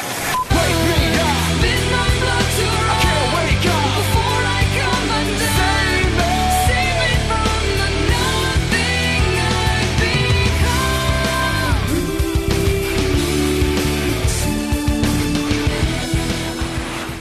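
A rock song plays loudly and continuously for the whole stretch, with dense layered instruments, sustained melodic lines and a steady driving beat, and no talking over it.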